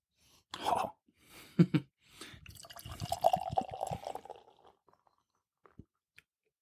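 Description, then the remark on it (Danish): Beer poured into a glass: a couple of short splashy bursts, then a steady gurgling pour lasting a few seconds, ending with faint drips and quiet. “ja, det, det, det dufter allerede, når man hælder det i glasset.”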